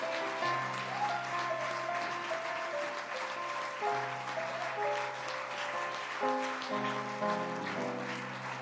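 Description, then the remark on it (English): An audience claps hands in a steady, dense wash of applause that holds throughout, while sustained low keyboard chords play underneath and shift pitch every few seconds. No one speaks. “Clap your hands and thank, for a, thank God for a man of God in your life.”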